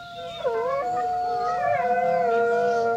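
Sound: wolf howling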